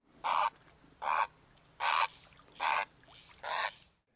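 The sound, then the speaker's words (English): A blue heron gives five harsh, raspy, pterodactyl-like croaks, evenly spaced about a second apart, each a short gravelly squawk, clear against a quiet outdoor background. “yeah, they said they truly sound like what you would think of like a dinosaur sounding like, I feel like.”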